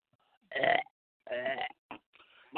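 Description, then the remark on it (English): Two loud, drawn-out guttural hacking throat noises, each about a quarter second or more, from coughing up a hairball, followed by a short grunt and a rough exhale. “bad, dog. That was a hairball.”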